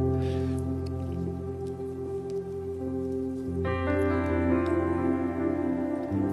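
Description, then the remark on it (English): Many small communion cups are peeled open at once by an audience during a church communion service, a scattered, soft crinkling and squishing heard under steady sustained keyboard music. “If you wouldn't mind now, take, open up the cup.”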